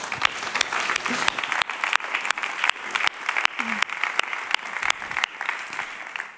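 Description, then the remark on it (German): Steady applause of thanks from an audience, dense rapid clapping sustained throughout at a fairly loud level, with a few brief murmurs of voices underneath. “Deswegen einen herzlichen Applaus nochmal, vielen Dank für euch.”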